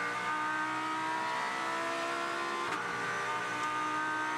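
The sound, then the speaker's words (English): High-pitched racing engines scream steadily, their tones sliding and layering as race cars speed through a downhill section into Hogpen toward the start-finish line, one a Lexus, with a brief sharp burst near the end and no talking. “made up ground last time uh, through this downhill section here and into Hogpen towards the start finish line, but those two cars have edged away from him just a little bit.”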